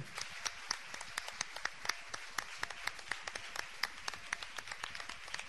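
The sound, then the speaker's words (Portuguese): A church audience applauds God during worship, many hands clapping in a dense, continuous patter of sharp claps at moderate loudness, with no voices standing out. “Vamos aplaudir a Deus que nos elegeu.”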